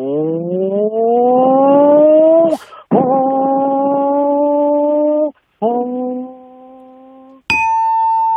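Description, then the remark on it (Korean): A voice imitates a high-displacement 500cc motorbike starting up and pulling away until out of sight: a buzzing hum rises in pitch, then two steady bursts separated by brief breaks like gear shifts, the last softer, before a short high ding. “네, 시동 걸고 예. 출발해서 음, 시야에서 멀어질 때까지 그 소리를 좋아.”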